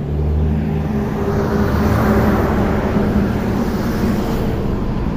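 A heavy truck rumbles by on a street, its deep engine drone loud throughout, with a steady roar of road noise and no voices.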